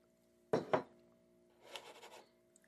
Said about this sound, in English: Let me sip this coffee right quick.